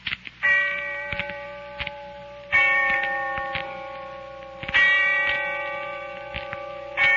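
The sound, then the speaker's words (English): A bell tolls three slow, evenly spaced strokes in the distance on All Souls Night, each ringing out and fading before the next, with a faint clock-like ticking underneath and no voices. “And when I heard the bell tolling somewhere in the distance, I remembered.”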